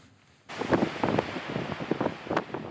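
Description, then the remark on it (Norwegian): After a brief quiet moment, strong wind at sea in the Barents Sea, where oil exploration takes place, roars loud and gusty, with rough buffeting surges and no voices. “Det blåser godt når man er på jakt etter olje i Barentshavet.”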